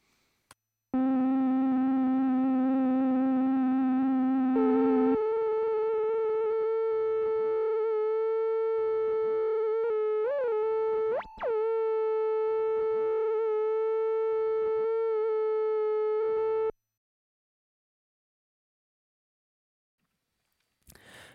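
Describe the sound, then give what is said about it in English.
A steady, buzzy synthesizer oscillator tone jumps up in pitch, then wobbles with vibrato whose speed keeps changing as a first LFO modulates the rate of a second LFO mapped to the oscillator's fine tune, swooping and bending before settling and cutting off, with no talking. “Now, our first LFO will modulate the rate of the second LFO, which is still mapped with the fine tune of our oscillator.”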